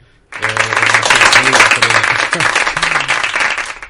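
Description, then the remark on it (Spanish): Applause from a crowd bursts in suddenly and holds steady and loud for several seconds, a dense crackle of many hands, with faint voices murmuring underneath. “Ahí está el aplauso.”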